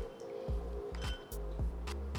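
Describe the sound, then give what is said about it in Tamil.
Wet squishing and rubbing as a gritty coffee scrub paste is worked over the full face, repeating in soft strokes about every half second with no one talking. “இப்போது ஃபுல் ஃபேஸ்லேயும் நம்ம அதை ரப் பண்ணியாச்சு”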